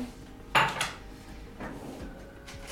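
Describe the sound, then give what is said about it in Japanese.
A sharp, ringing clink of dishes is followed quickly by a lighter tap, then a few soft knocks and rattles of cups and utensils being handled at home while regular drip coffee is made with freshly boiled water, with no one talking. “ちょっとお湯が沸いたのでコーヒーを入れていきたいと思いますちょっと待ってね”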